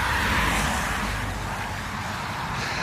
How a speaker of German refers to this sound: Moment, Auto